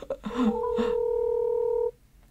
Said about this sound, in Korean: 전문가한테 네. 한번 전화 한번 해보도록 하겠습니다. 그죠? 저, 저 전화 어? 찬스.